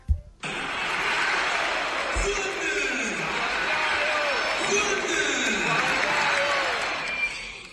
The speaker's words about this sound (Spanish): el grito de los hinchas después del gol. después del gol lo acaba de subir en su cuenta Instagram eh, Juan Guillermo Cuadrado agradeciéndole a los hinchas.